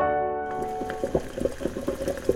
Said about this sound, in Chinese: 哦，这是煮汤圆时水滚的声音。